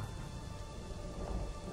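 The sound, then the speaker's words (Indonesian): Heavy rain pours down in a steady, dense roar, with a low thunder-like rumble underneath; no voices, just the continuous downpour. “Hujannya deras amat.”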